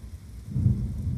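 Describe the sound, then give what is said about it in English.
Steady rainfall with a deep, low rumble that swells partway through, like thunder under a storm. No voices, just continuous wet ambience. “Blood puddling in one eye and rain falling in the other causes temporary blindness for Moto.”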